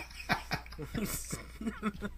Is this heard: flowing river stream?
no